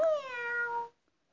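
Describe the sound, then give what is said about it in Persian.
A single drawn-out cat meow, clear, its pitch sliding gently downward for just under a second before cutting off into silence; the meow of a mother cat with a two-month-old kitten. “میاو بچه دو ماهه من از پسر یه ساله یه تو زرنگتره میاو”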